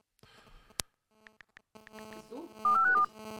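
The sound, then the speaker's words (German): A sharp click, then a few short, evenly spaced phone keypad beeps, followed by a denser run of dialing tones that rises to a louder series of stepped electronic notes, as someone tries again to call a person. No one speaks. “Aber ich kann nochmal versuchen, hier. Den Ralf anzurufen?”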